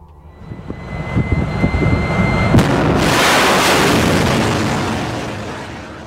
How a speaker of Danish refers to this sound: da missilet for forbi i bunden af haven.